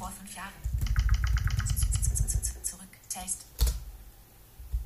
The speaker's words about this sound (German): Zurück. Also mal auf zurück. Da, vieles macht man halt mit den, mit den Pfeiltasten. Das ist wie bei der Bluetooth-Tastatur auch.